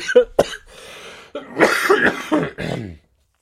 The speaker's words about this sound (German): Ich bin immer übrigens ein bisschen erkältet. Bevor der erste mich später wieder umbringt, weil ich so viel gehustet habe.